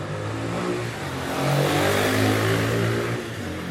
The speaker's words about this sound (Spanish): Allá va la moto subiendo.